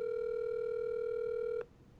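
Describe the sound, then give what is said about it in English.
A phone line tone on a call: one steady, mid-pitched electronic beep holds for about a second and a half, then cuts off abruptly, leaving faint background hiss. No one speaks. “And if, if not, we can leave him a voicemail.”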